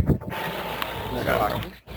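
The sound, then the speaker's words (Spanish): A rotary air conditioner, just switched on, runs with a steady, even hum that fills the background, while people talk over it at moderate loudness. “No, e-, ese el aire acondicionado que lo prendí.”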